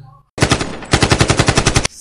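A loud burst of automatic gunfire sound effect: a fast, evenly spaced string of harsh shots lasting about a second and a half, with a brief stutter partway through and no voices.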